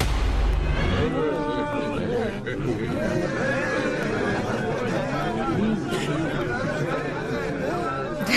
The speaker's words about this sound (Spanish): Bueno, estamos escuchando ruidos, eh, sonidos, perdón, sonidos sonidos de... Sí, ¿no? Sí, sonidos. Eh, de una reunión social.